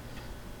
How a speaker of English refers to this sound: Do you hear that quiet ticking sound? It's the sound of the Versch wall clock with Hermle time mechanism that we have hanging in our dining room. I don't know the exact age of the clock.